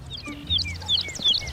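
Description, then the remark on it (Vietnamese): Several birds chirp and tweet in quick, overlapping bursts of high, sharp notes, loud, over a steady low rumble of background noise. “Bữa nay chim có gì vui mà hót rít đau hết cái đầu hà”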